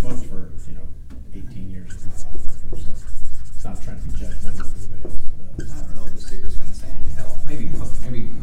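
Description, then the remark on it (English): A pen scratches steadily across paper in close, continuous strokes with brief pauses, while low, indistinct voices murmur underneath. “let's let's write this down because this is right.”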